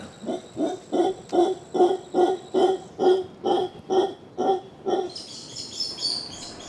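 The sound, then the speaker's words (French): A mantled howler monkey in Mexico calls to communicate with distant members of its kind, giving a rhythmic run of about a dozen deep, hoarse grunting pulses resonating in its throat, fairly loud and steady, before fading as higher bird chirps take over at the end. “Ce cri, c'est celui du singe hurleur à manteau.”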